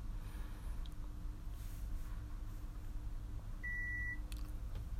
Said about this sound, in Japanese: まあ、聞こえたかわかんないんですけど、ちょっとつけてみますね。これ完全に音めちゃでかなってるんですよ。このスイッチのピーっていう音が。これもうある日突然ですげえびっくりして、えと思って。何この大きい音ってなって、なんかスイッチの音が今大きいんですよ。